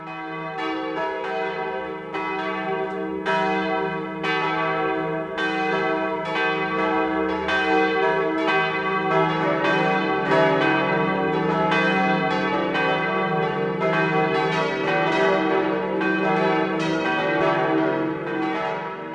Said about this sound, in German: Es ist 12 Uhr. Das Mittagsläuten kommt heute aus Wengen im Allgäu.